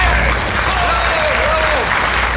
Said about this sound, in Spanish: Muchísimas gracias, un aplauso merecido, pero no, no esperado. No, no, no, sí esperado también en el fondo